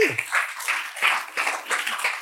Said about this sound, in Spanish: Apláudele a Dios si le va a aplaudir.